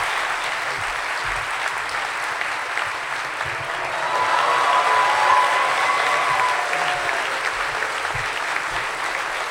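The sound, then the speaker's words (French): An audience claps steadily for several seconds, a dense wash of hand claps that swells slightly in the middle, with a faint whistle or cheer rising briefly above it, applauding a longtime work partner the speaker is introducing. “Alors, euh, est-ce que vous voulez bien l'applaudir”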